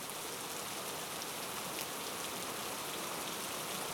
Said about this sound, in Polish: A potem z tego giganta lunął ulewny deszcz.